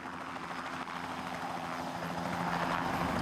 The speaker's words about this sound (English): The key to making lift is getting air to flow over an aerofoil. In a helicopter, you do it by spinning the rotor blades.